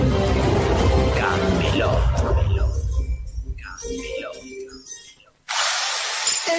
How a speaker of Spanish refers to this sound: Este es el ruido de las reformas. Y con Fidel Cocinas suenan así.